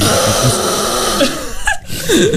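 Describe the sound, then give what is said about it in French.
A person imitates fart noises with parts of their body, having farted with three body parts: a loud, rough, buzzing rasp held for about two seconds, briefly breaking off, then returning with a squeaky pitch sweep at the end. “J'ai fait un record puisque j'ai pété avec trois parties de mon corps.”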